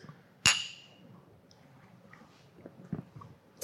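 Beer glasses of New England IPA clink together once in a toast, a bright ringing chime that fades over about half a second, followed by a few soft knocks and faint handling sounds.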